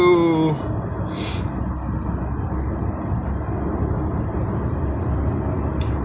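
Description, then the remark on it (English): A steady roar of freeway traffic with a deep, constant rumble and hiss, with a brief tonal blare at the very start. “I'm checking out this traffic um, freeway switching up”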